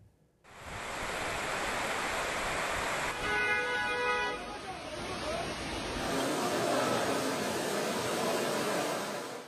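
A heavy downpour in Istanbul roars in a loud, steady hiss from start to finish, with a brief tonal whine rising over it partway through.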